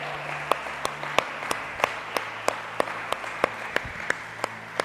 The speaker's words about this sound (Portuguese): Você pode dar a melhor salva de palmas para Jesus.